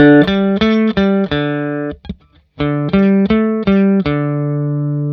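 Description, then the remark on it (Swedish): An electric guitar fitted with Pro Steel strings (strings with a lot of steel in them), switched to a different pickup setting, plays a bright, sustained phrase of repeated chords, pauses briefly with a few muted scratches, then resumes with the same rhythmic strums ringing out loudly on their own. “Och då är det så, på den här gitarren så sitter det ett som heter Pro Steel, alltså en sträng med väldigt mycket stål i.”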